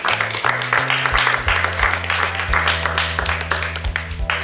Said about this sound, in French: on peut applaudir Bryden, s'il vous plaît